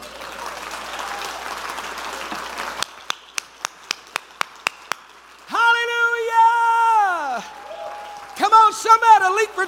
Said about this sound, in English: Somebody shout a garment of praise. Clap your hands and praise Him.